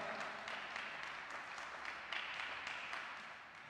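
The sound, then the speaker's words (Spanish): Sustained applause from an audience, a dense wash of many hands clapping at a steady level for several seconds, with no speech over it. “dale un fuerte aplauso a papá.”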